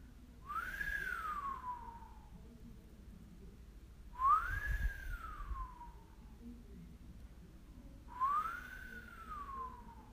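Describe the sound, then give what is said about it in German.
Three separate human whistles, each a clear tone that rises quickly and then glides slowly downward, spaced evenly a few seconds apart over a soft low background rumble with no talking; whistled as a breathing exercise with a hand resting on the lower belly. “Beobachte jetzt, wenn du pfeifst, was an deiner Hand passiert.”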